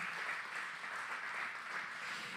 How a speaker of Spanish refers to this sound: Yo creo que podemos darle palmas al Señor.